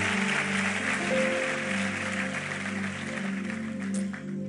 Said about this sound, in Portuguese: Vamos aplaudir a ele.